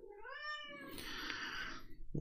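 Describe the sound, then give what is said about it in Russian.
A female cat lets out a long, drawn-out meow that rises and bends into a loud, strained yowl, with no one talking. “Не знаю, что она там говорит, но мои коты в ужасе.”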